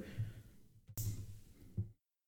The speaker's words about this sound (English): okay now we're peeling off that wrapper sorry for all the extra noise here but as you can imagine doing this left-handed everything takes a little bit longer